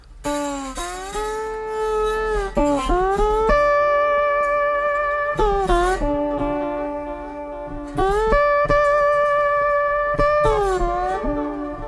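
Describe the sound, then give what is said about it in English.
A clean slide guitar with an octave-up effect and no distortion plays sustained notes that glide smoothly between pitches, with a bright doubled tone. The phrases are steady, with no talking over them. “Go back with the octave up.”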